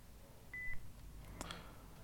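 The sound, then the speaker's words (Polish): A single short, high electronic beep from an Olympus digital recorder signalling standby mode while nothing is being recorded, clear, followed a moment later by a faint mechanical click against quiet background hiss. “To piknięcie sygnalizuje właśnie, że jesteśmy w trybie gotowości.”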